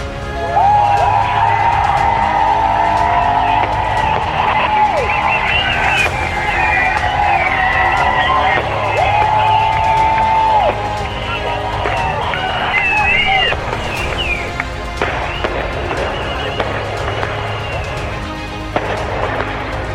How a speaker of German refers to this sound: Und da die drin nicht sehen können, wie viele hier sind, lasst uns doch mal richtig laut sein, dass sie eine Vorstellung davon bekommen können, wie viele Leute sich heute hier versammelt haben.